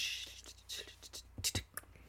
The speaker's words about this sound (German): Das war das, Schlagzeug oder, oder Stift? Keine Ahnung, das war Stift.